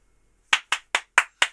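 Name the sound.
audience clapping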